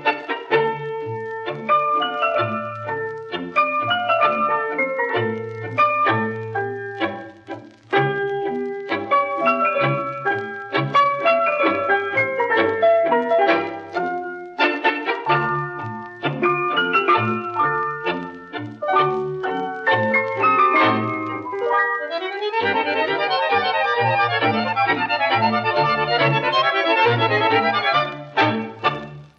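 An orchestra plays a tango with clipped, rhythmic bass and staccato melodic phrases, the full ensemble steady and loud, shifting to a denser, busier passage near the end. No voices.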